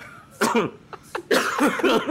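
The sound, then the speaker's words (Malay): A person coughs several times: one harsh burst, two short quick coughs, then a longer rough, raspy coughing fit. No talking. “kan kan dah batuk-batuk cakap zombie.”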